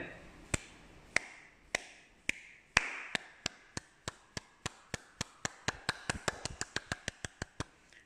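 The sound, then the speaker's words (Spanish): Sharp hand claps imitating raindrops falling on a tree, sparse and evenly spaced at first, then steadily quickening into a rapid patter like falling rain, with faint background murmur between claps. “Cuando el árbol está bajo la lluvia, vamos a aplaudir como si nuestras manos fueran gotas de agua.”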